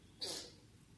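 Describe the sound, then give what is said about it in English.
A single quick sneeze bursts out, a short breathy, hissing blast that fades within a moment, heard alone against a quiet background. “The life force, bless you.”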